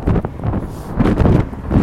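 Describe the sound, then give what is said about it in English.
A steady breeze by the LA River in downtown Los Angeles buffets the microphone in low, rumbling gusts, swelling and easing over a couple of seconds outdoors with no voices. “downtown Los Angeles has a breeze today.”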